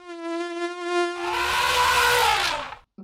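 A high, steady mosquito whine with a bright, reedy tone for about a second, then it turns into a louder, raspier, noisier buzz that holds and cuts off abruptly.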